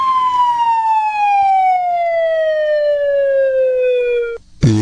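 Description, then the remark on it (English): A slide whistle sounds one long, steady note that slowly falls in pitch for about four seconds, clear, then stops abruptly and is followed by a short, noisy burst. “Yep, that was a slide whistle.”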